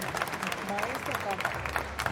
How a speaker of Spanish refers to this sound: Aplausos, por favor.